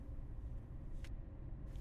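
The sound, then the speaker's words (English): A car turns off a main road onto a wide dirt track, rolling along with a steady, heavy low rumble, as if heard from inside, with a couple of brief rattly bumps from the rough ground beneath the tyres. No one speaks. “swung the car off of a main road and down a wide dirt track.”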